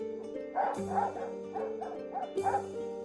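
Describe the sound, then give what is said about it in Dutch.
Two leashed guard dogs at a strictly guarded entrance bark insistently in a rapid series of deep, harsh barks, overlapping, with a couple of sharper bursts standing out. No one speaks. “Hun twee waakhonden nemen hun werk uiterst serieus.”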